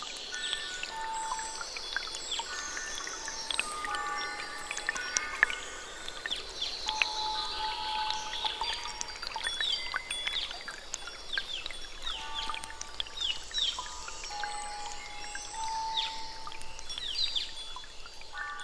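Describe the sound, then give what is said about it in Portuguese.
Continuous dripping water falls into a large water harp at dusk, producing many bright, bell-like plinking tones with short ringing echoes, layered densely and irregularly at a steady moderate level with no voices. “Logo escutamos o som de uma harpa d'água ainda maior e mais potente do que a que encontramos antes.”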